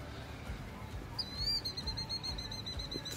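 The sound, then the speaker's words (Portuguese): A small bird chirps rapidly and insistently, a quick run of thin, high-pitched notes starting partway in and continuing steadily over a low, rumbling background noise. “Tem um passarinho agitado lá.”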